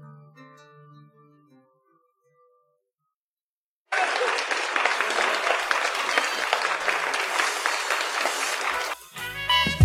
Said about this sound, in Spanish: Aplausísimo. Tan aplausísimo que hasta empezó la música jazz después.